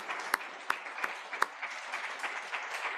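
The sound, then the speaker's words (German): An audience applauds after a performance, a dense wash of many hands clapping at a steady level, with a few sharper individual claps standing out early on. No voices are heard. “Würde am liebsten auch wieder wie im letzten Jahr dazu aufrufen oder sagen, dass ihr einen Applaus verdient habt.”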